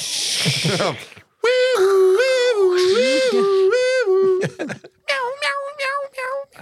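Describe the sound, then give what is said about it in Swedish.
A person imitates a cat in a tree meowing, with long, wavering, drawn-out cries, then a few shorter yowls. The voice is loud, with a breathy noise just before it. “Ni hörde vad det sista att jag försökte... Alltså, en katt i ett träd.”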